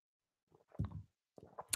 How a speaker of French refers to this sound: Désolé, je bois.